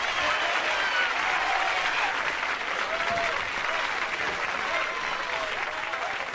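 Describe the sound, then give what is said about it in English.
A large crowd applauds Richard Pryor loudly and steadily, dense clapping filling the whole stretch at an even level, with faint cheers and whoops rising now and then from the audience. “Richard Pryor, come on, give it up.”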